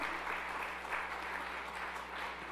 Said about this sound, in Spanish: Yo quiero que usted le dé un aplauso fuerte al Señor.